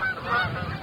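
Several geese honk in overlapping calls, a dense, continuous clamor of a flock passing overhead, with no voices present.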